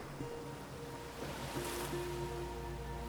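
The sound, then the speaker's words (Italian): Sea water washes steadily around a boat in a continuous, moderately loud surge of noise, with a faint low hum underneath and no voices. “È un'esperienza top per me ritornare a contatto col mare.”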